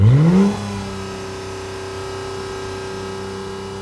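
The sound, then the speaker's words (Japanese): A Honda NSX sports car engine, a car that competes in domestic races, revs up hard in a short rising burst, then settles into a steady, droning low hum that holds for a few seconds with no voices. “国内のレースなどにも参戦している NSX のエンジン音を採用ということで専門家の監修のもとホンダ社の30車種以上のデータなどを調べたり実験を行った結果この低音域の出る NSX”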